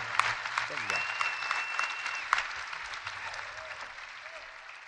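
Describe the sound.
Sustained audience applause for the bandoneon player after a tango performance, a dense steady patter of many hands clapping at even loudness, slowly tapering toward the end, with a few sharp louder claps and faint voices mixed in.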